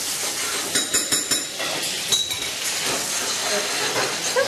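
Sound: steam hissing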